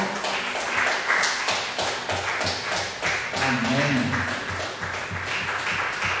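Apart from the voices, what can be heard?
audience applauding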